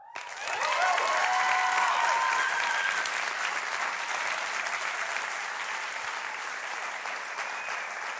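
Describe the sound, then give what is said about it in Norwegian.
An audience breaks into sustained applause, loud and dense clapping from many hands filling the room, with a few whoops or cheers rising near the start before settling into steady clapping. “Men kanskje dere bare gir henne en applaus?”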